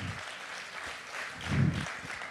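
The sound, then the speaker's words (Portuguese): A crowd claps together, applauding Jesus, in a steady, dense patter of many hands, swelling briefly louder partway through before settling back, with no voices standing out. “Pode, pode aplaudir, porque é Jesus é que faz isso.”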